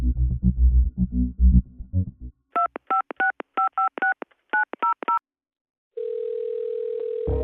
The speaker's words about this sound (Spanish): Pedro llama a su esposa Katia Blanco. Katia no coge el teléfono.